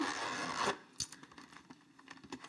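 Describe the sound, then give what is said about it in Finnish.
A zipper on a red gift pouch is pulled open in one steady, raspy stroke lasting under a second, followed by soft scattered rustles and small clicks as the pouch is handled. “Mä sain tosiaan siis tämmöisen punaisen pussukan, missä on vetoketju.”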